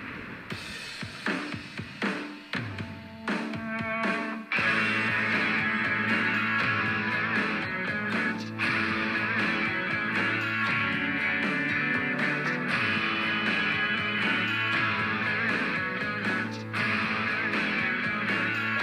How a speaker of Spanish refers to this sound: Y pues bueno, te comparto esta canción para darnos unos minutitos.